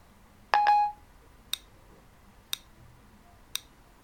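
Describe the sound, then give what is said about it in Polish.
A short, bright electronic Siri activation chime, set off by a button press, rings out once, followed by three faint, sharp ticks spaced about a second apart, with no talking. “Zapytajmy Siri o to, jaki jest największy budynek na świecie. Posłuchaj. Przycisk.”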